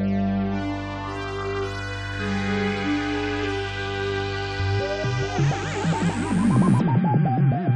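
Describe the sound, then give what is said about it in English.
Dense, layered instrumental theme music composed by Rachel Westhoff, with sustained droning tones, then wavering, sliding high melodic lines and pulsing rhythm building toward the end; loud and steady with no voices. “The music we just heard was composed by Rachel Westhoff, my lovely wife,”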